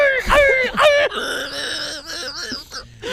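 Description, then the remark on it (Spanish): A person vocally imitates a dog yelping and whimpering after being hit by a can, with a few sharp rising yelps followed by drawn-out, wavering whines, fairly loud. “es que tú, nunca has oído, tú nunca has oído un perro cuando le suenan un latazo y ¡Au, oh, oh, oh, El tipo escucha la lata y empieza.”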